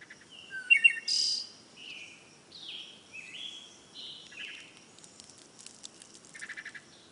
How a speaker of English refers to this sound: So, birds chirping outside your window may indicate normality, perhaps because as a species, we've been used to that sound every morning for millions of years.